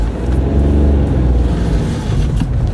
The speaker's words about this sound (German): Natürlich äh, fährt hier auch noch das ein oder andere Auto vor mir, ja, danke.